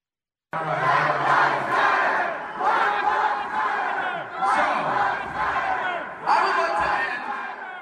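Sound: protest crowd chanting slogans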